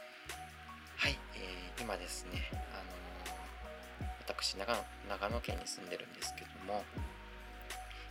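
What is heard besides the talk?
heavy rain falling outside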